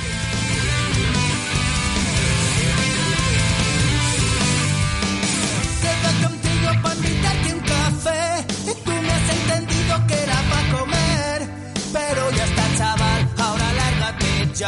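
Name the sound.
song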